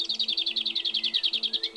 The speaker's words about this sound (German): Klappergrasmücke